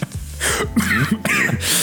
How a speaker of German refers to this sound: oh Gott, oh Gott, ja. jetzt kriegt er hier noch einen Hustenanfall.